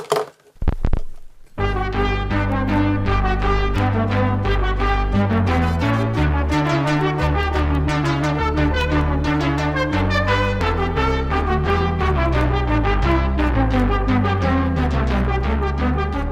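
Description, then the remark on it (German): Bach played from a record made on an early synthesizer: bright, buzzy electronic tones weave quick contrapuntal lines over a steady bass. The sound is continuous and fairly loud after a brief thump at the start, with no voices. “Also es klingt nach Bach, aber es klingt ein bisschen schräg nach Bach. Das hat ja halt diesen typischen synthetischen Klang eines Synthesizers.”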